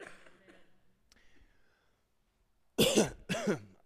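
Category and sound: human body sound, cough and throat clearing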